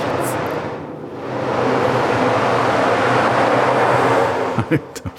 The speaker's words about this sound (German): Da schlägt die Gischt an den Strand.